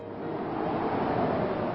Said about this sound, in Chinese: 但是那时正好有一阵大风吹过，就把那句话吹走了。